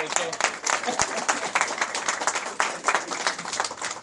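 Steady audience applause fills the whole four seconds: dense, crackling clapping from many hands with a bright, even texture and small swells in loudness, no voices on top.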